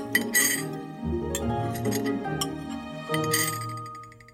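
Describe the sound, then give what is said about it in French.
A spoon clinks against a bowl of porridge several times in a loose, uneven rhythm, with bright metallic taps over a steady, tonal background hum; no one speaks. “Elle est trop chaude dit-elle en remettant la cuillère dans le bol.”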